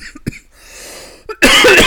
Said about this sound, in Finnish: jotain on tiennyt kurkkuun, kun näin köhittää. Mm. Kuivaa kurkkoa, kun puhutaan niin paljon